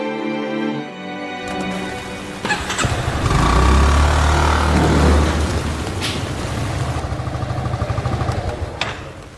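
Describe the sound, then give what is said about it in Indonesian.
A motorcycle engine starts up and revs loudly in a full parking lot, rumbling steadily with a rough, throaty idle after a brief tonal jingle at the start. “Aduh, parkiran penuh nih mau ngerapiin motor lain, ntar keburu telat.”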